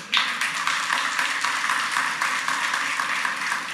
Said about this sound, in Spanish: Hay niños aplaudiendo, ya saben.